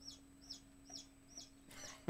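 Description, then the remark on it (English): Young chicks, nine weeks old and less than one week old, cheep in a steady series of short, high peeping calls, about five in a row, with a low hum in the background and no talking. “I've got what nine week old chicks and w- less than one week old chicks.”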